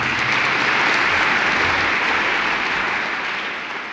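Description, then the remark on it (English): An audience claps steadily to welcome a speaker, a dense, even wash of applause holding loud for several seconds before easing off slightly at the end. No one speaks over it. “Please join me in making her feel very welcome.”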